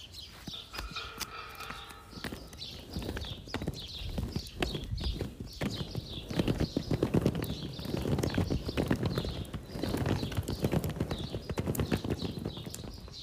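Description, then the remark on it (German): Roller skates clatter and roll across a hard floor as someone moves around on them, with a steady rhythm of sharp clacks over a low rumble that continues throughout. “Das waren meine Rollschuhe auf dem Boden.”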